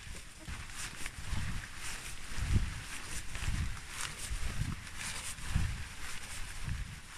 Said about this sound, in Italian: Questa è invece una camminata con il voluminoso camice monouso che doveva indossare per entrare in reparto, sopra la divisa.